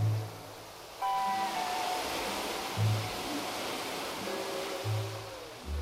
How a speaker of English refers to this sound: The waves on the beach at Waikiki.